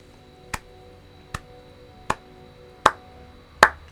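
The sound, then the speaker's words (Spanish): Five slow, evenly spaced hand claps, each a sharp crisp smack with silence between, growing somewhat louder toward the end. No one speaks. “Esos son mis aplausos, ¿ya?”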